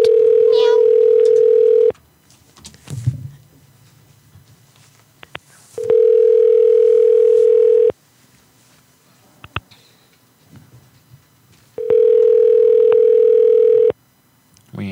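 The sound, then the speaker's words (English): An outgoing phone call rings three times, each steady electronic tone lasting about two seconds with roughly four seconds of near-quiet between rings, loud as if heard through a handset. “I'm going to call.”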